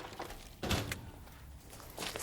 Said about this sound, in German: Der Bote betrat das Haus und die Tür wurde geschlossen.